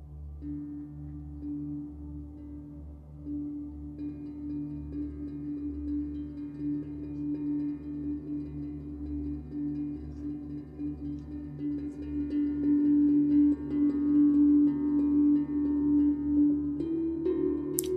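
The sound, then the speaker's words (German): Calm ambient background music of sustained, droning tones layered over a low hum, holding steady before swelling louder in the final seconds. No one speaks. “Du kannst jetzt die Musik wieder ausmachen.”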